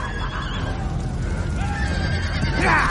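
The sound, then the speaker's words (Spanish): Several horses among mounted riders in a plaza neigh and whinny over a steady low rumble of shuffling hooves, with a louder, shrill whinny rising near the end. “En una plaza, John camina entre jinetes Dothraki.”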